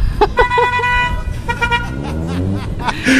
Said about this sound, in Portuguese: O pessoal tá buzinando aí também, ó.